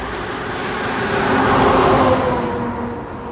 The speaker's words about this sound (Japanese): 今ちょっと知り合いにすれ違いましたね車の。